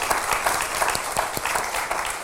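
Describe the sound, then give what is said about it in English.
Steady applause as the audience gives itself a hand clap, many hands clapping in a dense, continuous patter with a few sharper claps standing out, sustained at a fairly loud level throughout. “Come on, give yourself a hand clap.”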